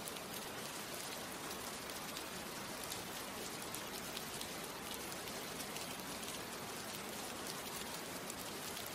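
Steady, dense rain pours down without pause, a continuous hiss of drops pattering on surfaces at an even level, enveloping, with no voices.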